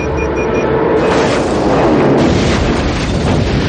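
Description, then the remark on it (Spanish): A small plane crashes into the towers of a factory and explodes in a large fireball, a loud, sustained roaring blast of rumbling noise, with a thin high whine fading out early on. No one speaks. “choca contra las torres de de una fábrica y la avioneta explota provocando una gran llamarada.”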